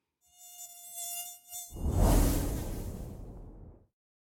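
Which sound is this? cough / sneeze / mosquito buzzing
mosquito buzzing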